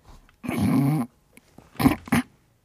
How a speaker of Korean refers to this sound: 오늘의 정답은 책상 끌어 당기는 소리였습니다, 여러분. 학교 다닐 때, 책상 끌 때,